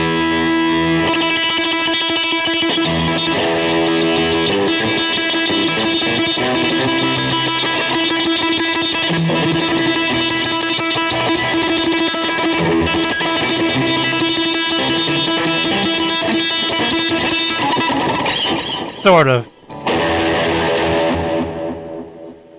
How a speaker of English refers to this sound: Yeah, there's a there's a special magical delay in your right ear. Hear that? That one's magic.